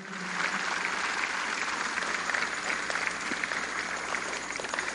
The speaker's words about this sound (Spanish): Dale un aplauso fuerte a Dios ya que lo está haciendo, no se queda a la mitad.